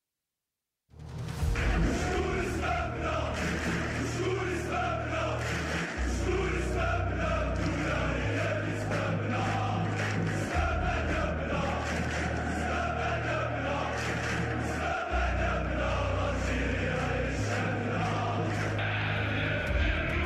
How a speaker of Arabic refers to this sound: هذه عينة من أغان غاضبة ضجت بها ملاعب كرة القدم في الجزائر ورددتها حناجر الآلاف من جماهير النوادي